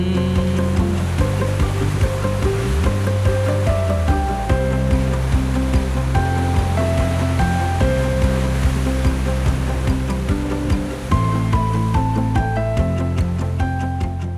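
Ocean waves make a steady, continuous rushing wash of surf, with sustained musical tones layered over it and no speech.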